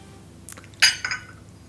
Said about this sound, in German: Darauf müssen wir heute anstoßen.